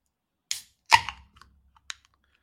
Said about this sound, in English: Do you want to crack open yours and we'll see what it sounds like? Okay, so here we go.